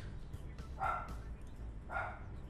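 animal, dogs barking

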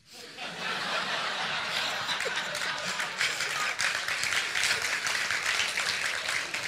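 crowd, audience applause

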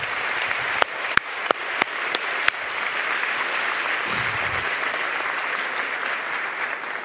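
crowd, audience applauding

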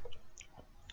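food or drink, sipping bourbon

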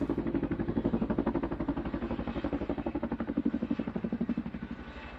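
vehicle, helicopter flying

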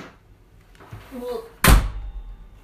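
household object, door slamming shut

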